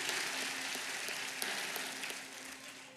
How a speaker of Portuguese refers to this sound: Recebe nossas palmas, Jesus bom, Jesus. Yes. Recebe todas as palmas, Jesus.